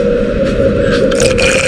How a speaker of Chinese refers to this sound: 将拉杆往下扳，来一杯沁凉啤酒。